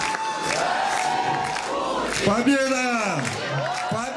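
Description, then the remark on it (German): Supporters of the Kremlin party United Russia in Moscow cheer and shout, celebrating Russia and President Putin as first partial election results are announced: a dense roar of many voices with rising, chanting cries swelling over the top, loud and continuous throughout. “Bereits mit der Bekanntgabe erster Teilergebnisse nach 20 Prozent ausgezählter Stimmen brach bei der Kremlpartei in Moskau großer Jubel aus.”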